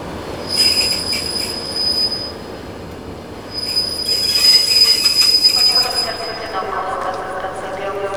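A train rolls along the rails with a steady low rumble, high metallic wheel squeals rising and fading in waves over the top, fairly loud throughout.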